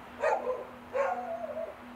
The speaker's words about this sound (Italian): ho sentito un silenzio e tutti i cani che abbaiavano.